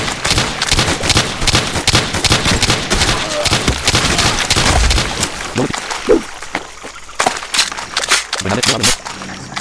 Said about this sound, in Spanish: Habéis oído un sonido porque he recargado el arma con la R.